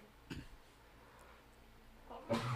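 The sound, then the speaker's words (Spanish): A short, sharp sneeze from a cat allergy bursts out near the start, then after a quiet pause a louder, fuller sneeze erupts at the end, with no talking. “Salud de nuevo.”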